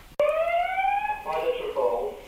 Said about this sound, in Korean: 오늘 축동이 많네요. 인터뷰 중에도 세 번이나 울리는 출동 경보.